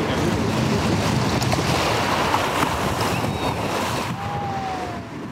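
Ocean surf rushes and churns in a steady, loud wash of breaking waves, with a faint windy roar and no voices, easing slightly near the end.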